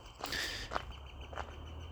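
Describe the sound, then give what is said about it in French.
A bird calls a few times in short, bright bursts, fairly faint, on a network of trails beside a lake at Les Marais du Nord, a bird-watching spot, over a soft outdoor background with no one speaking. “Il y en a un d'ailleurs qui se fait aller à cœur joie.”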